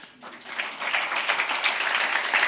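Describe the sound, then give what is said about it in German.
An audience bursts into applause for Jesus during a sermon, many hands clapping in a dense, steady wash that swells after a brief start and holds at an even, moderately loud level. “Und Jesus, und dafür, gib, gib ihm mal einen Applaus, bevor du hörst, was er gemacht hat.”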